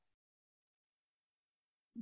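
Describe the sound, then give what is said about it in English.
A phone line drops out: sound cuts off abruptly into nearly two seconds of dead silence, then a short, low, buzzy burst returns as the connection comes back. “Did I lose you? No, you're still you were still here.”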